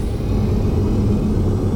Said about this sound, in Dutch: Dat laatste is een elektrische auto.